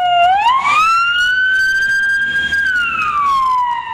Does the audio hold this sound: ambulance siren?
yes